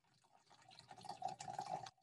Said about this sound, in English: just me he... pissing. I, was, I looked over. I was wondering what the fuck that was. Just me um, urinating.